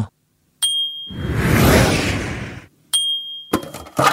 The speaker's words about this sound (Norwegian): Eh, det flyet det var veldig kjapt, så det er Kvikk.